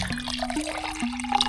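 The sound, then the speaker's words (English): Water pours steadily for a second or so into a vinegar syrup made of sugar, water and vinegar, a continuous liquid stream with a faint gurgling hum and no talking. “Add some water in it.”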